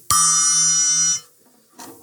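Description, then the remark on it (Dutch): One of two small tuned cymbals is struck once, giving a bright, bell-like ring with shimmering high overtones that sustains for about a second before being damped abruptly. “Maar vandaag heb ik speciaal eh, twee eh, gestemde bekkentjes. Deze klinkt zo.”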